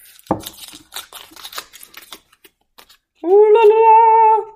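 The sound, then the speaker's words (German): A drawn paper slip crinkles and rustles as it is unfolded in a quick burst of dry crackles lasting a couple of seconds, then a short sustained voiced sound follows after a brief pause. “Ähm, raschel, raschel. Und ich mach's auf.”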